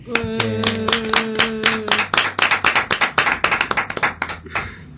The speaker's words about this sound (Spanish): Y nada, felicitaros y un aplauso como siempre.